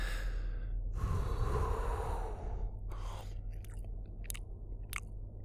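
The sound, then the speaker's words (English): A long, breathy exhale gives way to a few crisp bites and chews on a slice of charred meat, short crunchy snaps spaced about half a second apart over a low steady hum. “Dillon let out a long breath before he finally took his first bite.”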